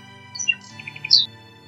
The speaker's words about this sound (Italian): Cantava la rondine e volò nel verde bosco.